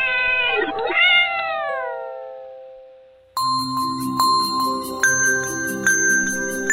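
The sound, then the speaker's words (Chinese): A single long meow from a small cat named Mimi (咪咪), high and whiny, sliding downward in pitch as it fades out. After a brief pause, a bright chiming musical jingle starts up. “爸爸说：“咪咪了不起，是天下最棒最棒的猫。”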